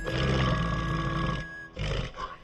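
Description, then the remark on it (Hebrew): A white female polar bear named Numa, living in a forest in Norway, growls loudly, a deep rumbling roar lasting over a second, then a brief pause and a second shorter, raspy growl. “היא גבוהה כמו שלושה ילדים, שיני החדות קטר, ואת הנעימה שלה אפשר לשמוע בכל היער.”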